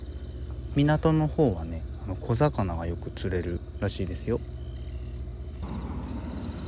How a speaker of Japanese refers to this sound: 静かな海沿いに夏の虫のね声とあとさっき聞こえてきたんだけど海鳥サギっていうことらしいですね海鳥の声が時折響いております東京のね、まあ、僕のいるところ練馬区なんで練馬区から車で2時間ほど来た千葉の海です